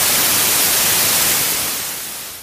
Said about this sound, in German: ja, und an dieser Stelle ist unsere Aufzeichnung nicht mehr anders als ein Rauschen. Ähm, wie das genau passieren kann, kann ich leider nicht sagen. Jedenfalls sind die letzten 18 Minuten, 18 Minuten von unseren Aufzeichnungen weg.